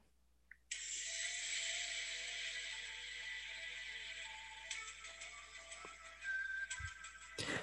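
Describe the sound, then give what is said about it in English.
An eerie whistled TV theme tune of thin, sustained notes drifts beneath a loud, steady hiss, with rattling clicks near the end and no talking. “Is it the X Files?”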